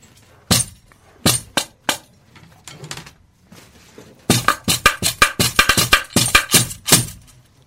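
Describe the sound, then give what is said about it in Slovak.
An ozembuch folk percussion stick rattles and jingles, first with a few separate metallic thumps, then a fast, loud burst of rhythmic jangling strikes with no talking. “Ozenbuch teraz chytil do rúk”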